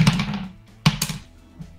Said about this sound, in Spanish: esos son dados, ¿eh? no penséis mal. ¿eh? son dados, ¿eh? ¡Dados!